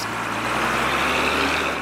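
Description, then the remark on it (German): A truck engine runs steadily on the outskirts of Nakuru in western Kenya, a loud, constant low rumble with a broad mechanical roar and no pauses, as the truck delivers wastewater from its full tank. No one talking. “Am Stadtrand von Nakuru im Westen Kenias bringt ein Lastwagen einen wertvollen Rohstoff.”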